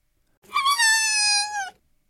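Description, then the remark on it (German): A human voice imitates the howl of Papa Fox, a storybook fox: one sustained, piercing wail lasting just over a second, with pitch sliding slightly downward at the end, heard alone. “heulte Papa Fuchs. Es war so ein durchdringender Ton, dass Henry sich die Ohren zuhielt.”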